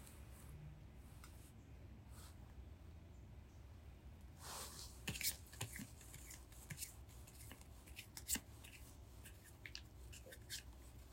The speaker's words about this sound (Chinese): 然后请你想你在二零二四年你想追求的，一样，请你洗牌，洗到你想停就可以停。